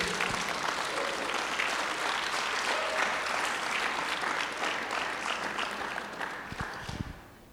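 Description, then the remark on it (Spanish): An audience applauds the Lord during a sermon, steadily for several seconds, a dense wash of many hands clapping that stays loud throughout and gradually thins out at the end. “¿Puedes aplaudir al Señor todavía, por favor?”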